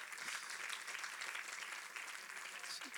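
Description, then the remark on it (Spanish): A church audience claps for God during a service, steady, dense, continuous applause, a bright rush of many hands holding an even loudness throughout with no voices over it. “Denle un aplauso fuerte a nuestro Dios.”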